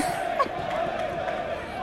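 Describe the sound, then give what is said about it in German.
A large crowd in a stadium yelling and shouting together, a steady, dense roar of many voices that holds at an even loudness throughout, with a few brief louder outbursts rising above it. “Warte, schreien wieder alle rum.”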